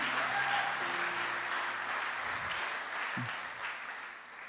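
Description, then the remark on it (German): An audience applauds God and the band steadily, a dense wash of clapping that holds at a fairly even level throughout and eases off slightly toward the end, with a faint low hum beneath it. “Können wir Gott nochmal einen Applaus geben?”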